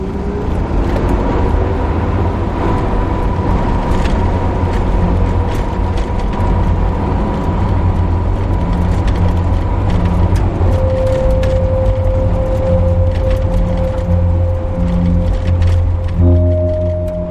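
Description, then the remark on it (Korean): A large vehicle's engine drones loudly and steadily, with clanking, rattling mechanical parts throughout; a whining tone shifts upward partway through, as if the vehicle is pulling away. No one speaks. “거대한 엔진과 부품들이 얽히며 부딪히는 소음이 날카롭게 귓속으로 파고든다.”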